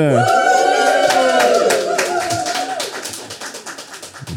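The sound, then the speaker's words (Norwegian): A live audience clapping steadily in a dense patter of sharp claps, with a sustained, wavering high vocal cry riding over the first half before the applause thins out, clapping before any fun facts have been shared. “En fin, fin gjeng som klapper helt uten å ha noe å klappe for enda, for ingen av oss.”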